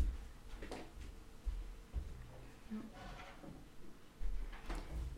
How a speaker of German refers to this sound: ich mach kurz die Tür zu.